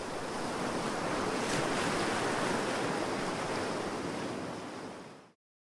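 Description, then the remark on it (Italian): Open-sea waves wash and churn in a steady, dense roar, fairly loud, around a rubber dinghy balancing precariously on the waves in darkness, with a windy hiss over the top; no voices, and the sound fades out abruptly near the end. “Era l'oscurità dei demoni della disperazione, della guerra e della violenza, quella che circondava il gommone in equilibrio precario sulle onde.”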